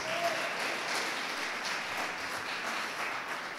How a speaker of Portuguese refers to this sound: Aleluia! Pode aplaudir Jesus.